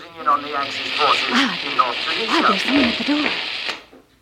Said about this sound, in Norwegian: En mor, en far og ei nyfødt datter fleste sitter og hører på en ulovlig radiosending fra London når det kommer tre tyskere på døra.